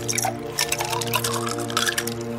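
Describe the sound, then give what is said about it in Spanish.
Iced agua de Jamaica pours steadily from a jug into a glass for a couple of seconds, a continuous splashing stream with a faint low hum beneath it and no voices. “Le han traído una jarra de agua de Jamaica con hielos para refrescarse. Permítanme.”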